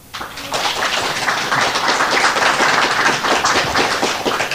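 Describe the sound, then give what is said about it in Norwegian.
An audience at Drammensbiblioteket, the Drammen library, applauds to welcome author Kim Leine: a dense, steady wash of many hands clapping, fairly loud and sustained for several seconds, with individual claps blurring into continuous patter. “Ta ham vel imot.”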